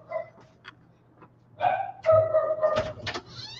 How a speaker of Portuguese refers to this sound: Olha o cachorro. Pronto, que aí minha esposa faz o cachorro parar de latir ali, aí a gente continua aqui a live.